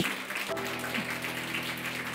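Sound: audience applauding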